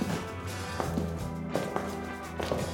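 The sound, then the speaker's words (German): A few spaced footsteps tap at an unhurried pace, faint and echoing through the empty corridor of a Realschule (secondary school), over a steady low background hum with no one speaking. “Unsere Schritte halten gespenstisch durch den leeren Gang.”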